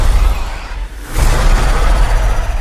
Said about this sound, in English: Listen very carefully to this roar from the Indoraptor.